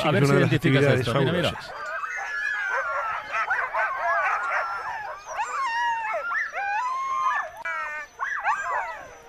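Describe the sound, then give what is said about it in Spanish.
A pack of excited, nervous sled dogs in Finland, waiting to set off on a dog-sled run, barks, yips and howls together in a continuous, overlapping chorus, starting with a loud burst and then a restless, high-pitched clamour throughout. “Estos son los perros esperando a salir, nerviosos, inquietos”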